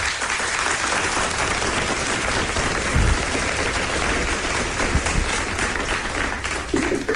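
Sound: audience applause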